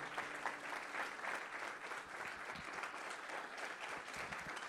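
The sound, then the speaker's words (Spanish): A church audience applauds for the Lord during a sermon, a steady, dense wash of clapping that holds at an even level for several seconds, with no voices standing out above it. “Vamos, denle un aplauso al Señor.”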